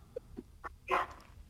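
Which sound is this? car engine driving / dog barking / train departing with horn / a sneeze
dog barking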